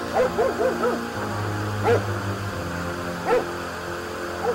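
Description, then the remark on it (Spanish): A dog barks in a quick run of four or so yaps, then lets out two more single barks spaced a second or so apart, over a steady low background hum. “Este maldito perro no se calla, la tele no funciona.”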